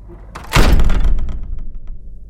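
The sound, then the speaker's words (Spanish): A single heavy, booming impact slams against a wooden door, followed by a short rumbling decay and a few faint rattling clicks as it settles. “Y justo cuando cerramos la puerta, escuchamos otra cosa chocar contra la madera.”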